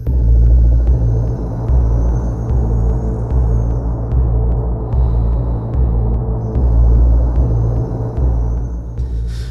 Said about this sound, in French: Voilà, il y a un côté assez planant dans ces drones euh, assez lourds.